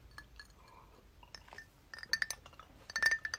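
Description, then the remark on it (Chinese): Glasses clink together in a toast: a few soft taps early on, then bright, ringing high-pitched clinks in two quick clusters toward the end, with no talking. “我们这一期就以碰杯打板吧。”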